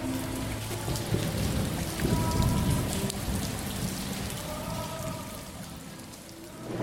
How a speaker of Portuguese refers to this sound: Ontem à noite, quando eu fui dormir, estava chovendo. Choveu durante toda a madrugada, cheguei a acordar com o barulho da chuva. Agora de manhã continua chovendo. 15 graus na zona sul da capital paulista.